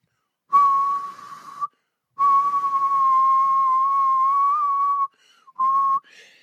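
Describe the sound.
A person whistles a pop song tune in a few long, steady notes with short breaks between them, mostly holding one flat pitch with a slight rise at the end. No one talks.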